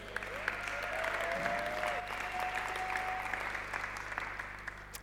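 A crowd applauds steadily for about five seconds, a dense wash of clapping with a few sharper individual claps standing out, holding even in loudness before easing slightly at the end.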